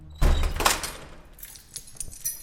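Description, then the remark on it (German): A heavy metal door thuds, then a bunch of prison keys jingles and clinks in short, scattered bursts at moderate volume, with no voices, inside a prison. “Also dieser Schlüssel, der in irgendeiner Form immer klimpert und so, ist für die in irgendeiner Form immer die Bedeutung, da kommt jetzt ein Bediensteter auf den Flur.”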